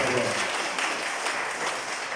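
A church audience claps steadily and loudly in applause to the Lord, a dense, continuous wash of applause with no voices rising above it.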